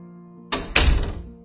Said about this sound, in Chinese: 又过了一会儿，随着关门的声音，一切又归于沉寂。